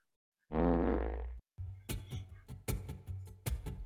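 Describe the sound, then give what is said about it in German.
A loud fart sound effect played from a soundboard that keeps looping: one long buzzing blast, then a short gap and a run of rapid, sputtering bursts over a low rumble. No one speaks. “Soundboard funktioniert noch nicht so, weil einfach alles, was ich schon mal angeklickt habe, dort jetzt im Loop äh, laufen lassen.”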